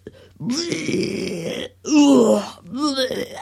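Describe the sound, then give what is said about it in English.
A voice imitates a long, satisfied moan after taking a sip of wine: three drawn-out vocal swells with rising and falling pitch, the middle one loudest, separated by short pauses. “I'm going to take a sip and it tastes. And then it's like, mm-hmm. and it's like a really extended”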